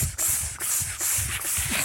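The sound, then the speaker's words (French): A group of people imitates cicadas with sharp, hissing breaths during a breathing exercise, hands on their floating ribs and shoulders down: a steady loud sizzle broken into quick rhythmic pulses, about four short pushes of air in under two seconds. “On fait les cigales.”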